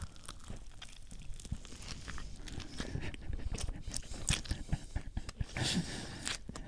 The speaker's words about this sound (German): Ähm, so, so hört sich das an, wenn man da reinbeißt? Ja.